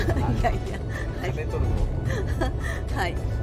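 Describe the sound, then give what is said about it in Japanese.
A steady low rumble of road and engine noise inside a moving car heading to Suga Shrine in Fukuoka, Kyushu, with people talking over it. “ただいままたあの今日のねあの今日は菅神社さんというところで今向かっている車の中で、はい、移動中のまた収録でございます”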